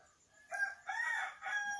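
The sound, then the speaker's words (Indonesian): A rooster crows a single drawn-out cock-a-doodle-doo in three rising and falling segments, loud, with a quiet background and no talking, at 2:12 in the morning. “Nggak bisa tidur dan ayamnya masih berkokok ya, of course.”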